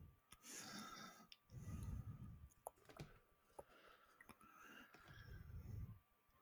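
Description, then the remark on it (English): Slow, heavy breathing, with a few long breaths rising and falling and small clicks in between. No one speaks. “There's a lot of heavy breathing, a lot of thinking going on right now.”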